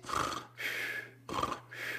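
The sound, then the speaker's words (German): A voice imitates light snoring with two slow cycles of breathy, rasping inhales and exhales, moderately loud, over a faint low hum. “Und dann, Leute schnarchen so ein bisschen,”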